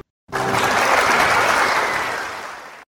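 An audience applauds to welcome a school principal about to speak: a dense wash of clapping that starts abruptly, holds strong for a couple of seconds, then gradually thins and fades out.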